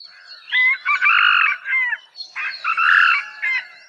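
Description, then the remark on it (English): A Hawaiian moa rooster crows twice in quick succession, each call a short, harsh, clipped cock-a-doodle-doo whose last syllable is much shorter than a domestic chicken's, loud with no other sounds around it. “Here's the call of the moa.”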